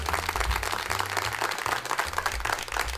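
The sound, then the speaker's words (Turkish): A steady burst of applause, many hands clapping together in a dense, continuous patter that stays fairly loud for about three seconds, with a low hum underneath and no voices. “Bu alkışlar sizler için.”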